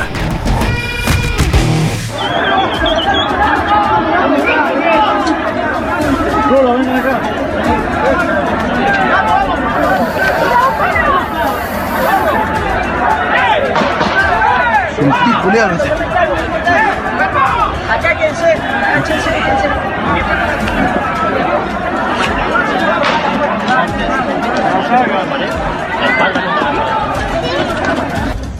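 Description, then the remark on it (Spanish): A panicked stadium crowd surges through the stands as everyone runs out, a dense, loud roar of many overlapping voices and commotion that stays relentless for the whole stretch. “No sabemos qué pasa, todo el mundo sale corriendo, pero no sabemos, no entendemos qué pasó, ¿eh?”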